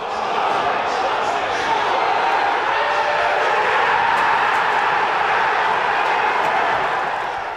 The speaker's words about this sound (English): That is Chelsea fans in London celebrating them scoring, and they went on to win.